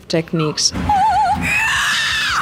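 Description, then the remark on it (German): A voice sings a brief wavering phrase, then breaks into a long, shrill, high-pitched squeal imitating a pig, loud. “Singen wie eine Operndiva und im nächsten Moment quieken wie ein Schwein.”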